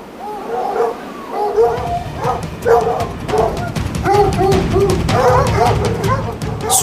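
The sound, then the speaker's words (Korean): A large black dog, as big as a male wild boar, barks in a rapid, agitated string of about ten loud barks while running down from a mountain, with a low rumbling noise running underneath throughout. “소리 나는 쪽으로 급히 고개를 돌리니 길 옆에 죽어 있는 수컷 멧돼지만큼이나 덩치가 큰 검은색 들깨가 달려오고 있었다.”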